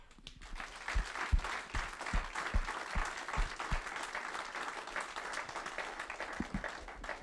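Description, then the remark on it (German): Audience applause sending greetings to viewers watching in Austria, Germany, Switzerland and elsewhere, a dense, steady wash of many hands clapping at a sustained level with a few sharper individual claps standing out, and no talking over it. “Lass uns bitte gemeinsam diese Menschen mit einem kräftigen Applaus unsere besten Grüße schicken, okay?”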